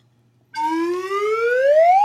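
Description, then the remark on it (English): A voice imitates a diesel engine revving up: one loud, buzzy, sustained tone that climbs steadily in pitch for about a second and a half, with no talking. “The sound of the diesel engine grew louder.”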